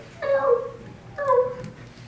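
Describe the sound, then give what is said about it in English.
A person imitates a cat, giving two drawn-out, nasal meows about a second apart, each rising and then falling in pitch, fairly clear with no other talk. “If some kitty cat”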